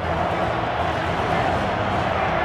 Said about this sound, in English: great shot of, of the other clones, the Regs, as they're called, cheering and applauding Palpatine.